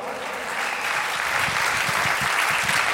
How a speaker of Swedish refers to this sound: Oj, oj, oj. Ska vi ge de här dansarna en stor applåd? va?